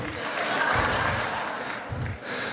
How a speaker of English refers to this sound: Um, some you can clap for that. You can clap, all five of you.